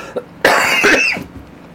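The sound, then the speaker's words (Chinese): A single harsh, raspy cough from a person with a very sore, inflamed throat bursts out loudly and trails off after about a second, followed by quiet breathy sounds. No one speaks. “对， 这个这个咳嗽不要剪掉， 因为我跟大家讲，其实就是我上上个礼拜。”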